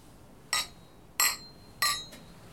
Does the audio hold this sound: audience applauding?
no